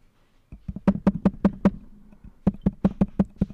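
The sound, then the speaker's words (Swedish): Someone taps on a microphone, producing a quick series of sharp, thumping knocks in two bursts of about five each, with a short pause between them. No one speaks. “Vill du tappa på den micken bara?”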